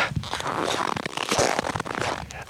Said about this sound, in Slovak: E, to, čo počujete podobnou, je zvuk vrzgajúceho snehu